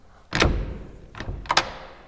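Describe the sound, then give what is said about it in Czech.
A stairwell door, unlocked with its key in the lock, swings open with a heavy thud and low rumble, followed by a few shorter knocks and a sharp click as it settles. No voices. “Dveře schodby se nikdy nezamykaly, co já vím. Klíč je v zámku, ale je otevřeno.”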